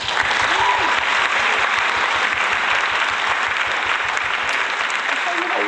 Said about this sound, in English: That's more impressive. Let's give that a round of applause.